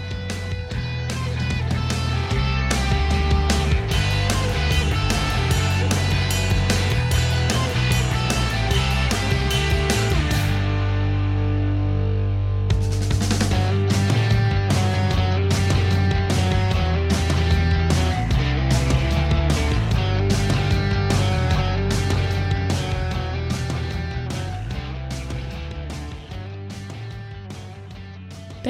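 An upbeat instrumental outro theme tune, also used as the intro, plays loud and steady with punchy drums and heavy bass, dipping into a muffled, filtered break midway before surging back and fading out at the end.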